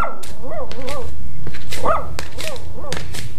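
A dog, Osvaldo, belonging to Dona Ruth, barks several times in quick, uneven bursts, fairly loud, with sharp yelping tones and a few snapping clicks between the barks.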